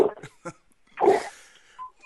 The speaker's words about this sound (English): it sounds like your dog's ready for a training session in the background, which I can understand. I have a hound myself.